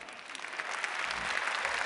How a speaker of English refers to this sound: Uh, Dan, where are you, Dan Ariely? Applause for Dan.